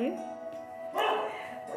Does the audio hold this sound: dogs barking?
yes